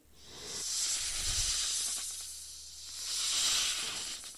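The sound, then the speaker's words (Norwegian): A common European adder, Norway's only venomous snake, hisses in two long, breathy exhalations, a steady airy hiss that swells, eases off, then rises again, with no voices. “Og så har vi det krypdyret som kanskje er det mest fryktede dyret i Norge, nemlig hoggormen.”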